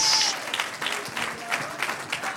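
An audience applauds steadily, a dense wash of many hands clapping at a moderate level with no single rhythm, while faint voices mingle underneath.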